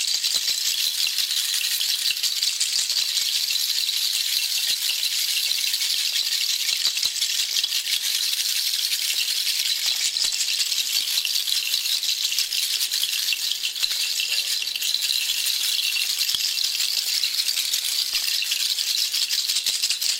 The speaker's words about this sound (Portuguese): Então permita que o barulho das charchas limpe aí seu campo energético. Permita que o barulho das charchas do chacoalho limpe seu campo energético.